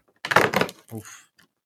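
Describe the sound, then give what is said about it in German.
A large cardboard door, number 19, on an advent calendar being pulled open: a quick papery tearing rustle, then a softer crinkle as the flap settles, with no talking. “ich gucke mal, was da an meinem Kalender ist. Eine große Tür, 19.”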